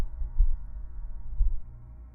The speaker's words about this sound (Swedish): Och du hör under ditt öra hur hjärtslagen börjar bli svagare och svagare.